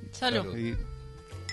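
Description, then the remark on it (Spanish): A quick clink of glasses in a New Year toast for 2019, bright, with a short ringing tone that fades under a voice speaking. “Salud, chicos. Salud.”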